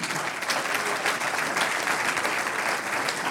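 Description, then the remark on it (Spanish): An audience applauds the Lord together, a dense, steady wash of clapping hands that holds at an even, fairly loud level for a few seconds with no voices standing out. “Un aplauso al Señor.”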